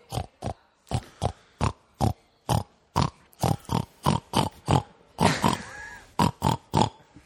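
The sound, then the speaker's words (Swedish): Four people imitate pig oinks all at the same time, a rapid series of short, loud grunting snorts in an uneven rhythm, with some overlapping squeals near the end. “Så låter det när alla fyra gör grisljud samtidigt.”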